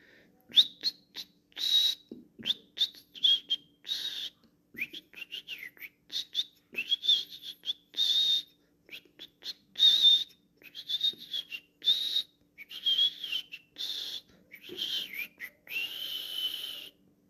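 A goldfinch sings softly, a steady stream of quick, high twittering notes and trills with brief pauses, fairly quiet, with no voices.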